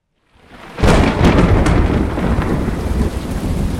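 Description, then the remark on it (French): A loud thunderclap crashes during a thunderstorm over France, followed by a sustained rumble and steady heavy rain pouring down, with no voices present. “La foudre frappe la France, le souffle de l'orage traverse le pays.”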